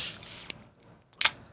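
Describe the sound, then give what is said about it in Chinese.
A can of non-alcoholic drink being cracked open on a hot day: a faint metallic click, then a sharp, hissing pop of escaping fizz about a second later. No one speaks. “今天虽然天气有点热，但大家好像都有一些疑似呼吸道症状，不过还是要来开罐一下， 好， 嗯，解渴一下。”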